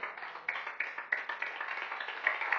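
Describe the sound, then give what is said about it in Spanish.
An audience applauds the Lord, many hands clapping together in a dense, steady patter with a few sharper accents, fairly soft and with no voices over it. “¿Cuántos le un aplauso al Señor?”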